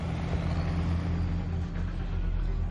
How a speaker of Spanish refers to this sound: Fuera camiones blindados se acercan rompiendo las vallas de los campos de cultivo.